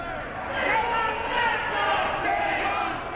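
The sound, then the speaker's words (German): A crowd of protesters shouts together in a sustained, overlapping roar, rising and falling in loudness over a few seconds, in the temple hall of a museum, crying "Shame on you, Sacklers" as hundreds of pill bottles are thrown into the water basin around the temple. “Plötzlich wird es laut in der Tempelhalle.”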